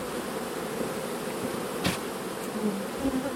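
A steady, dense hum of many honeybees buzzing at an open hive, continuous throughout with a brief sharper tap or click midway and no voices.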